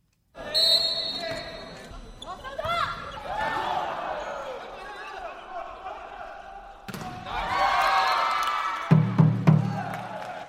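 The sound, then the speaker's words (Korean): Echoing college volleyball league match in Hanyang University's Olympic Gymnasium: sharp ball thuds, squeaking shoes and a brief, loud referee's whistle over a murmuring, occasionally cheering crowd, with a cluster of heavy hits near the end. “제가 이 두 심판을 만나러 간 곳은 한창 대학 배구 리그가 진행 중이었던 한양대학교 올림픽 체육관이었는데요.”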